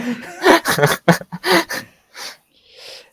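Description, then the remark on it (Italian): A voice imitates underwater breathing with a quick run of choppy, gasping breaths, then two softer airy exhales trailing off, fairly loud. “Tra l'altro respira sott'acqua in una maniera molto, realistica.”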